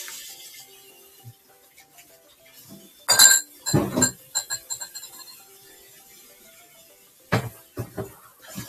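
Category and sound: household object, washing dishes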